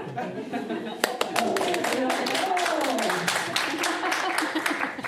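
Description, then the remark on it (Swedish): An audience at a book event claps instead of raising hands, a scattered, uneven burst of sharp, crisp hand claps lasting several seconds, with voices talking and laughing over the clapping. “Men vi har ju pratat om det här, jag såg att man ska klappa!”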